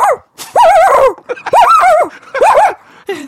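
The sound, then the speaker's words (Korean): A person imitates a large dog barking in a sound-imitation quiz game on a KBS show, letting out about four loud, throaty woofs with short pauses between them, with no other sounds around. “먼저 대형견. 대형견 대형견 좋아. 대형 갑니다.”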